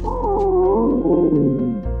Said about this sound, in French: Aux alentours de midi, … sent son ventre gargouiller.